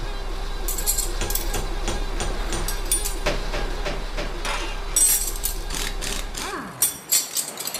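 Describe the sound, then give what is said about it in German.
A 10 mm wrench clanks and clinks repeatedly against an engine during a repair, ringing metallically over a steady low engine hum, followed by a few louder thuds as the rumble drops away near the end. “ich habe hier einen Vordereck 10er Schraubenschlüssel.”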